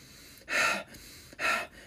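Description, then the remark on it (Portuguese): Two forceful, breathy exhalations, each lasting about a quarter second, fairly loud with a short pause between them, demonstrating the hard breathing of physical exercise. No talking. “vocês vão perceber que o ar sai com uma força bem grande, né?”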